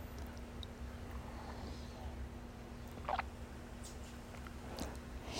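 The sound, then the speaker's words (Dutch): A single short, soft slurp of someone sipping coffee, rising briefly out of a steady low hum, with a few faint clicks around it and no talking. “Nou, dan neem ik gewoon nog een slok koffie.”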